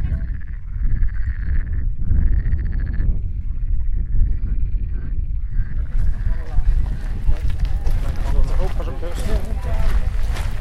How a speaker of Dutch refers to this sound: Je hoort de voetstappen beter. Het is wat gedempter geluid.